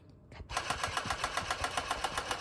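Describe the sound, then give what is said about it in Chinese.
A sewing machine in a bag-making workshop, being used to make a custom bag, starts up after a brief quiet moment and runs steadily, its needle clattering in a fast, even rhythm of bright mechanical ticks over a low motor hum. “…非常喜欢一面使用着缝纫机，一面哼着歌。”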